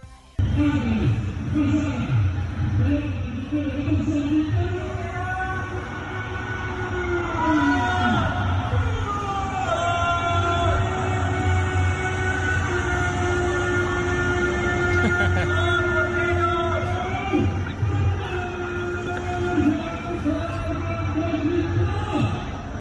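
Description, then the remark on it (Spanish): Neighbours in a neighbourhood shout and cheer from their balconies, reacting to a River goal that a fan played. A loud, continuous wall of overlapping yells echoes between buildings, with some shouting "Gol Bostero". “puso el gol de Juanfer y escuchen la reacción de sus vecinos del barrio allí en, el, en el balcón”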